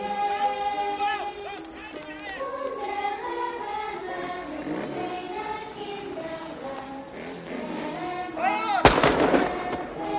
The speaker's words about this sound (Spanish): Con un solo disparo de su mosquetón, un soldado atraviesa los cinco primeros.